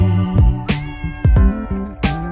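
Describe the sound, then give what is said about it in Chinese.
Pet cats' meows, recorded for a music album, sound over a steady musical backing, with several sharp percussive hits spread across about two seconds. The mix is loud and nobody speaks. “这样的一首歌曲灵感来自于他养的三只猫咪，他想通过这张专辑把它们声音给记录下来。”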